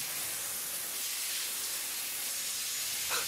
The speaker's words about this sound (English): Also, she put a 40 year old water heater out of its misery. With its dying breath, it's pressure washing everybody.